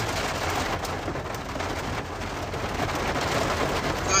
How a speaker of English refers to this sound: it's pouring down rain about to come in that's rain It's the rain.